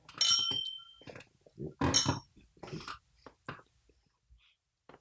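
Glasses clink together in a toast, a bright ringing chime at the start followed by a few more light clinks and soft tabletop knocks, with faint movement between.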